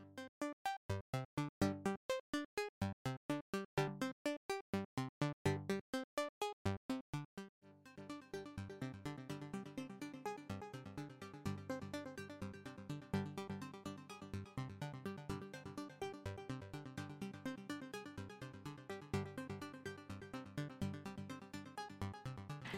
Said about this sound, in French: Et, euh, et, donc, ça va répéter le signal comme des échos artificiels. Et donc, ça donne une sensation d'espace tout à fait remarquable. Qu'on écoute maintenant.